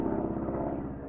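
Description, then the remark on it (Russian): A low, droning aircraft engine hums steadily overhead, its throbbing propeller beat filling the whole moment at a constant, fairly loud level with no voices; a wartime aircraft flying during the Great Patriotic War. “Летит.”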